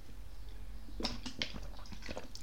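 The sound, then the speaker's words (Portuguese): Someone takes quiet sips of coffee or water, with a handful of short wet slurping and gulping clicks over a low, steady background hum. “Cara, agora toda vez que der uma pausa, é porque eu tô tomando ou café ou água, tá?”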